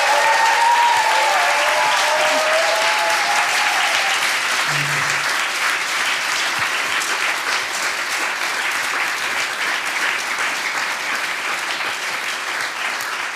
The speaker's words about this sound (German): damit ihr, die ihr gerade zuhört, an euren Geräten einen Eindruck bekommt, wie voll es hier ist, bekommt ihr jetzt einen fetten Applaus zu hören.